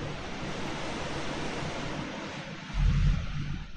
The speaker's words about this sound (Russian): Бабах. Что там ливень пошел? Да, ливень ебошит.